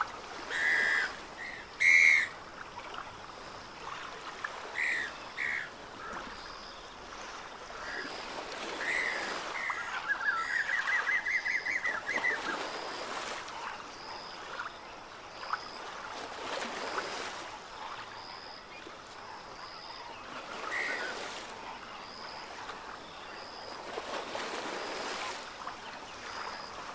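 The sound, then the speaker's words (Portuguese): Outdoor ambience at Lake Manyara with a steady wash of water and wind, dotted with scattered bird calls and whistles, some sharp, others faint. No one speaks. “O Lago Maniara e seus arredores são visitados anualmente por mais de 400 espécies de aves.”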